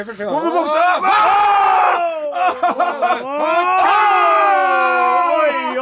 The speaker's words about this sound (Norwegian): Nå skriker han